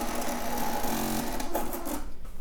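The small built-in printer of an autorefractometer whirs steadily as it feeds out a printout of a result, a continuous buzzing mechanical hum with a slight rattle, fading slightly toward the end. No one speaks.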